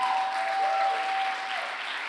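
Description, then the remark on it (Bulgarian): A crowd applauds steadily in a church, a dense, reverberant wash of clapping holding at a fairly even level throughout, with a thin sustained tone running faintly beneath it. “Айде хора, ако ръкопляскате, ръкопляскате, като че вярвате, че нещо се случва на това място.”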